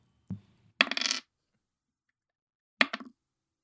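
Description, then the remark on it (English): An eight-sided die (d8) rolled for damage onto a hard surface, landing on an eight: a dull thump, then a bright rattling tumble, and after a pause a second short clatter of quick clicks. No one speaks. “So you roll the d8, multiply yeah. it times two, and then, yeah.”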